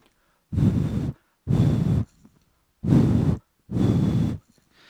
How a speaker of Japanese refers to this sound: で今度横からね息を吹きかけてみたいと思います